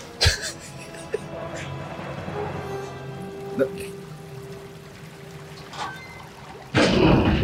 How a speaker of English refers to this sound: People just drained the bathtub.